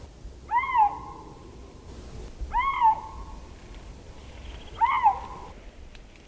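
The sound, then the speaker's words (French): A male lynx calling to females in a forest in the Jura calls three times, each a drawn-out, wavering yowl about a second long, spaced roughly two seconds apart, clear over a faint, low background rumble. “La seule différence, dans ce cas, c'était que c'était monsieur qui appelait les dames dans cette forêt du Jura.”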